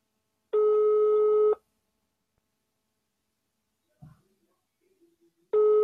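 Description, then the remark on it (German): A phone ringback tone plays through a loudspeaker: a steady, buzzy one-second tone, a long pause with faint small noises, then the tone starting again. No one talks. “So, und schalte mal den Lautsprecher ein und gucken, ob das gleich. Äh, achso, ich muss das ja so rumhalten, ne? der Ton kommt ja da hinten raus. Hört man es klingeln?”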